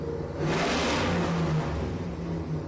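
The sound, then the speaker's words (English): A big-block motorcycle engine revs up loudly, a deep rumbling idle surging into a roaring throttle burst, then settling back into a steady growl with no one talking. “Sounds like a big block.”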